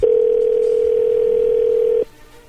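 telephone dialing tone

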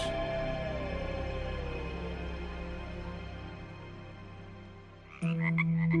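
toad croaking

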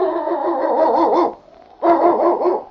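sled dog barking

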